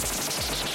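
quiz wrong-answer sound effect

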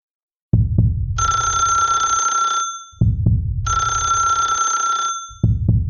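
telephone bell ringing

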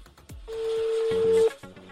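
telephone call dialing tone

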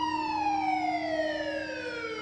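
ambulance siren

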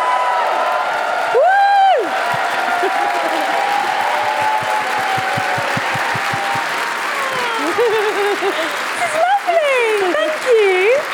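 audience applause and cheering

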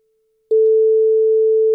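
telephone ringing tone

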